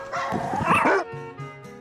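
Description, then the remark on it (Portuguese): Several dogs surrounding a family farmer at his smallholding bark and yip together in a loud, overlapping burst lasting about a second, then the noise drops to a softer, drawn-out whine with no one speaking. “O produtor familiar nos recebeu com os pés descalços, rodeado de cachorros, e assim ficou durante toda a entrevista,”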